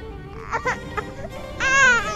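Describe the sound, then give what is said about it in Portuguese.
A one-year-old baby boy cries, a few short fretful whimpers building into one loud, sustained wail near the end. “Por que é que ele está a chorar?”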